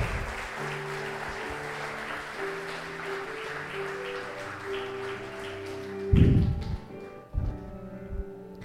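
An audience at a worship service claps steadily and vigorously for God for several seconds over sustained keyboard chords, then the clapping thins out as a few heavy, booming thumps break through.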